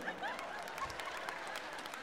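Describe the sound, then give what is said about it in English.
Sharp, irregular hand claps ring out fairly loud, a man in the audience clapping, a steady patter of applause over a couple of seconds, with faint crowd murmur underneath. “This man's clapping real loud right here.”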